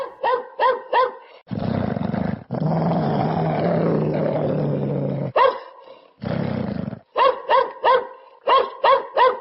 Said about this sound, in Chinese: 午夜刚过，狼嚎准时响起。狼群又发动声音疲劳战，三面山坡嚎声一片。全队的狗群立即狂吠反击，